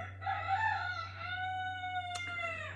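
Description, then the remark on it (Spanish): A rooster named Jacinto crows once in a long, drawn-out call with a strained, harmonic rise and gradual fall, loud over a steady low electrical hum. “Sí, ya sabemos que Jacinto, el gallo Jacinto, no.”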